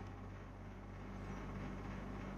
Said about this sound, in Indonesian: contohnya kayak sekarang nih kalau kalian dengerin baik-baik tuh ada bunyi kayak cetek cetek cetek. iya AC kamarku rusak